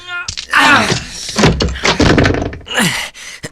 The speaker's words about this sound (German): Wir brechen die Tür auf. Ja, pass auf. Gleich haben wir es geschafft.